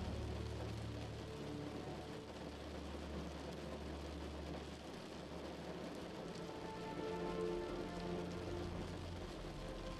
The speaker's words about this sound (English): As you rest quietly and comfortably, the gentle sound pattern of water droplets. Affirm your every relaxing sensation, sending you deeper and more content.